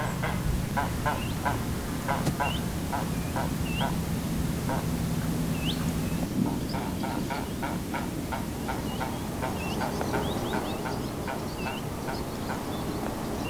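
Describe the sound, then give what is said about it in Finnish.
A grey heron gives an odd run of short, clucking, knocking calls in a rapid irregular rhythm, while small birds chirp thinly in the background over a steady low rumble. “Joskus harmahaikaralta kuulee aika erikoisia, harvemmin kuultuja ääniä, varsinkin puuhun laskeutuneilla linnulla tuon normaalin kuuluvan ränkätyksen sijaan.”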